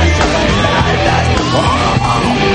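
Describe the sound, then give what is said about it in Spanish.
Loud, continuous screaming yells from several voices packed together, raw and strained, filling the whole stretch without pause over a dense, noisy backdrop. “¡Ah! estos gritos.”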